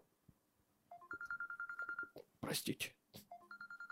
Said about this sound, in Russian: Извините, сейчас я телефон выключу.